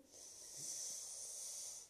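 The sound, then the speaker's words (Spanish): A long, airy breath drawn in during a guided breathing and stretching exercise, a steady soft hiss that swells and lasts almost two seconds before easing off, with no talking. “Inhalamos, extendemos todo.”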